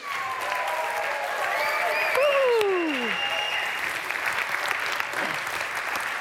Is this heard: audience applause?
yes